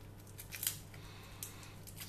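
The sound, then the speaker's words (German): Quiet, crisp little crackles and snips as a garlic clove laid on a table is pressed with the flat edge of a hand and peeled, a few sharp ticks scattered over a low steady hum, with no talking. “Dafür die Knoblauchzehe auf den Tisch legen. Kurz mit der flachen Handkante draufdrücken, dann kannst du sie sehr einfach scheren.”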